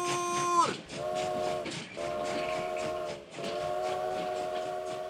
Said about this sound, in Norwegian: Nå går frokosttoget! Alle om bord!